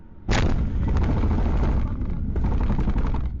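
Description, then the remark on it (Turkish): A car weaving through traffic on the 15 Temmuz Şehitler (July 15 Martyrs) Bridge slams from behind into a taxi carrying two passengers, recorded by the taxi's camera: a sudden loud bang, followed by heavy, continuous rumbling and rattling for a few seconds. No one speaks. “bir anda araç aldığı darbeyle sarsıldı.”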